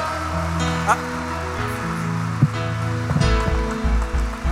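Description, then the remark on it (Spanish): During a sermon, a crowd claps loudly and steadily for several seconds, applauding God, a dense wash of applause layered over sustained keyboard chords, with a voice calling out now and then. “Vamos, vamos, apláudele. Fuerte, fuerte, fuerte, fuerte.”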